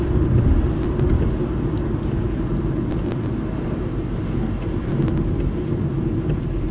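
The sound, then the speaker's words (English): Steady, dense rainfall hisses without a break, carried on a heavy low rumble like thunder, with a few faint taps of drops standing out. No voices. “And then it has the nerve to be raining.”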